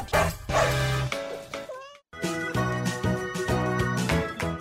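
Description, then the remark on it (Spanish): Dogs bark repeatedly in short, loud bursts, mixed with steady musical tones, and a brief high rising whine sounds just before a short pause midway through, at a Christmas dog and cat adoption event at Plaza Antea in Querétaro. “Seguimos en Patitas Adoptables en Plaza Antea con muchísimos perritos y gatitos en adopción que esperan que esta Navidad se les cumpla su deseo de tener una familia”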